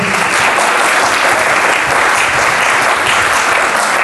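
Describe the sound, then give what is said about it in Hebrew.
Loud, sustained applause from an audience at an evening event for Rabbi Yosef Mizrachi from the United States, a dense steady wash of many hands clapping at once with no voices standing out. “ברוך השם זכינו, שבח שמעון העל, זכינו לגדול מזרקי הרבים מארצות הברית, הרב יוסף מזרחי, מגיע לו מגיע כפיים.”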